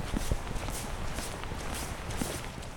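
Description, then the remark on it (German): Steady crunching footsteps on frozen snow on a snowfield in the Canadian Rocky Mountains during a winter hike, a walking rhythm of crisp, gritty steps, with no voices. “Und deshalb, wer selbst einmal auf einem Schneefeld in den kanadischen Rocky Mountains stand, fühlte, wie der gefrorene Boden unter seinen Füßen knirschte und das entfernte Rauschen der Wälder hörte, der weiß, so ist Winterwandern in Kanada.”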